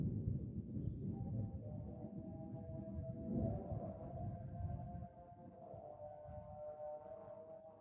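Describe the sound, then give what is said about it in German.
A call to prayer from a mosque drifts in as a long, wavering sung tone, faint and drawn out over a steady low rumble, with no one talking. “really just striking the video with the silence and the sounds like prayer or call to prayer coming from presumably a mosque”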